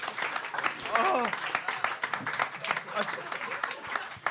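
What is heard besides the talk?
audience clapping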